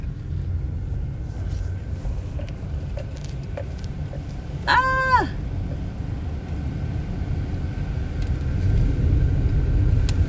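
A car driving at night right next to a police car, with a steady, loud low road rumble throughout, a faint constant whine above it, and a brief bright harmonic tone sliding downward midway.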